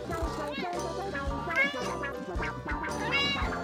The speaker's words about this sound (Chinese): 这时候呢，窗外传来了一只猫咪的叫声，哎，诶，刚画好猫咪，怎么就有猫叫声呢？